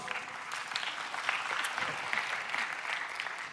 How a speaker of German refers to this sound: Das dritte, Applaus.